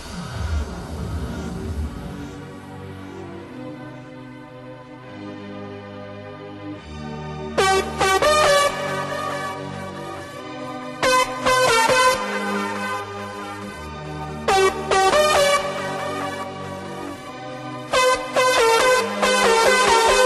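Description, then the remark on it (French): An Italo dance electronic track plays loudly, opening with sustained synth chords before punchy, rhythmic synth stabs and a driving beat kick in, with no talking over it. “…”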